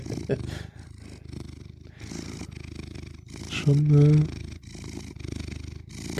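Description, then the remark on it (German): A cat purrs loudly and steadily, a continuous rhythmic rumble, while a person briefly speaks over it partway through. “ja, der brummt, brummt relativ äh, laut, ja.”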